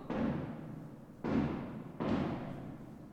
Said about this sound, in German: Also jetzt hört sich wieder mehr an wie Feuerwerk. Okay, Entwarnung, Entwarnung, Feuerwerk. ähm, das gestörteste Feuerwerk, das äh, ich seit langem gehört habe.